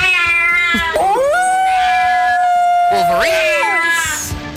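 Cats meowing loudly, with long drawn-out yowls that rise and bend in pitch, several overlapping cries across a few seconds, with no talking.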